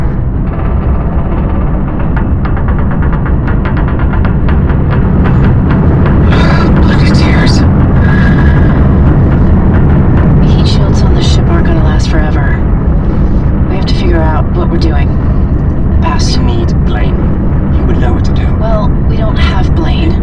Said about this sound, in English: What's that noise? The atmosphere burn. From the planet. Our side of the ship is rolling back into it.